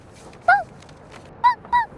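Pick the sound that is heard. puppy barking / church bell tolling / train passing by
puppy barking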